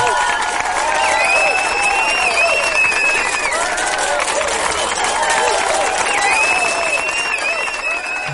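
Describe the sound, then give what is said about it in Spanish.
A crowd gives a standing ovation for actor Brendan Fraser, sustained, loud applause, dense clapping mixed with cheers and high whistles, holding steady for about eight seconds without easing off. “Me vuelvo a poner de pie por Brendan Fraser.”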